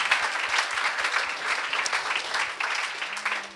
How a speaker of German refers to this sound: Und die ganze Gemeinde sage, Amen. komm, wir geben einen Applaus. Halleluja.